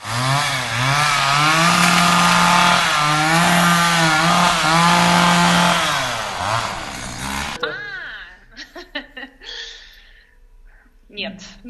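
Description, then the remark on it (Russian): A loud chainsaw, used as a comic sound effect, roars and revs for about seven seconds, its engine pitch wavering up and down, then stops abruptly as people begin talking. “А я имела в виду пилу в значении применения ее к мужчине. Его пилить, пилить, чтобы он что-то...”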